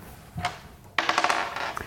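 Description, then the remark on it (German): Dice are rolled: a single click first, then a burst of rapid rattling and tumbling clicks that carries on for nearly a second before settling. No one speaks. “Wollen wir einfach mal würfeln?”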